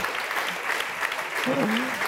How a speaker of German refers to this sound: Herzlichen Dank an Carsten Meyer-Heder. Das ist Ihr Applaus. Herzlichen Dank.